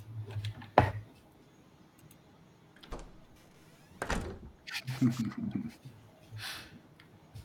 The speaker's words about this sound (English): Uh, I'll walk out and close the door.